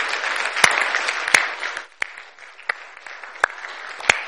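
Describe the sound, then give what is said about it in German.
An audience applauds for Jesus in a dense, steady wash of clapping, with several sharper individual claps standing out; the applause thins slightly midway, then carries on to the end. “Lass uns Jesus nochmal einen Applaus geben.”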